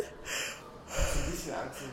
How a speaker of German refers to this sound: Und jetzt muss ich kurz gähnen.